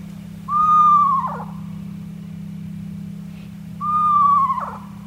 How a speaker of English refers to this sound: That's one of the sounds you'll hear when you hear a screech owl.